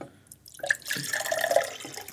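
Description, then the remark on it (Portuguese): Water pours into a 'zero grau' mug, a brief trickling splash that starts after a moment of quiet and continues steadily with bright, bubbling tones as the mug fills. “Vamos colocar uma água só porque eu sei que eu vou falar muito.”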